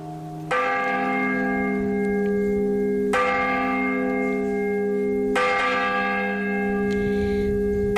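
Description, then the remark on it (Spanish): Church bells ring a loud festive full-swing peal for an important feast day, each bell swung through a full turn, with strong strikes about every two to three seconds and a rich, lingering ringing hum between them. “El toque de fiesta se hacía en los días de fiestas importantes y era abuelo, que consistía en dar una vuelta completa a la campana.”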